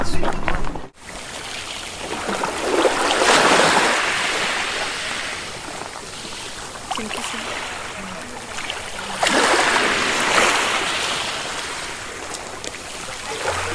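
Gentle waves wash in and recede on a beach shoreline in Malta, broad hissing swells building around four and ten seconds, with steady background surf throughout and no one speaking.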